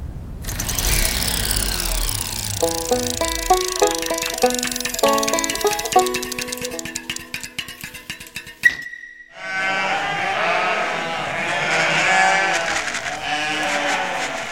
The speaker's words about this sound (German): Immerhin hat es mich auf Moorschnuckisch gefragt, ob wir Gespenster sind. Das Schaf ist eine Moorschnucke